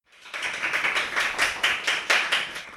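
Audience applause: a steady run of overlapping claps, bright and crackly, holding at a moderate level for a few seconds with no voices.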